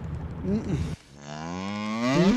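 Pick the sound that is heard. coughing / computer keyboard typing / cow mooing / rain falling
cow mooing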